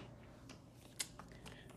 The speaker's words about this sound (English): But while I'm here, I'm going to take a quick little shuffle of the City of Dreams Oracle just to kind of,